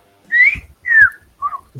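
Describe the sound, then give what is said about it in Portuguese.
Someone whistles a comic fright sound imitating the fright fit (piripaque) of the character Chaves: three loud, quick notes, the first gliding upward, the second sliding down, then a shorter, lower note, with no talking. “O piripaque do Chaves, quando o Chaves leva um susto, ele faz...”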